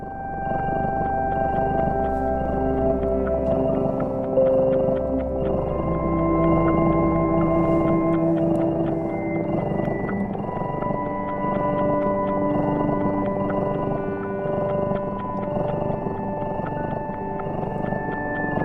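Music composed for cats: slow, sustained sliding tones drift over a low, throbbing purr-like rumble, steady and fairly loud throughout, with no voices.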